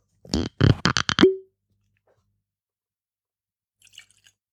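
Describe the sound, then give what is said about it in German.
Floki Icelandic Young Malt whisky, 47 percent, glugs out of a bottle into a glass in about six quick, bubbly bursts, ending with a short rising gurgle. After a pause comes a faint light clink or tap, with no voices. “Kleines Schlückchen. Oh, komm, ein bisschen größeres Schlückchen.”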